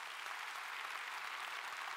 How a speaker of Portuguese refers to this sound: Se você concorda, dê um aplauso bem forte a Jesus.